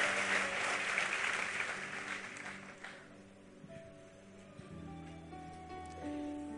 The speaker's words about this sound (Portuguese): Vamos aplaudir, vamos embora para casa.